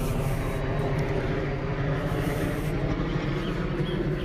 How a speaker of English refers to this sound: It's Black Op helicopters. That's exactly what I was thinking because it was black.